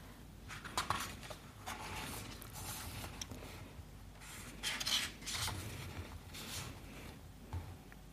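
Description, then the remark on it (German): Soft rustling and swishing as book pages are leafed through, several brief papery bursts over a few seconds with faint handling noise in between. “Und ähm, jetzt muss ich wieder ein bisschen blättern.”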